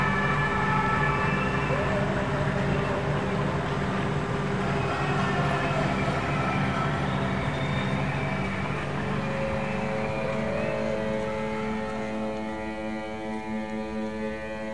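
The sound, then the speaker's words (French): Several boat horns in Marseille blare at 8 p.m. during lockdown in long, overlapping sustained tones, loud and continuous throughout, over a busy background of clattering and crowd noise. “Même les bateaux applaudissent.”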